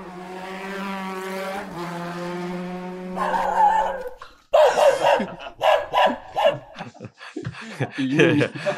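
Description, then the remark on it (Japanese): A loud engine of a vehicle driving through a residential area drones and revs for a few seconds, then a dog barks at it repeatedly in quick, uneven bursts, loud, over the fading motor noise. “犬に吠えられた。”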